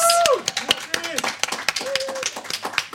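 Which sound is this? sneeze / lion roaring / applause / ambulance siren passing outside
applause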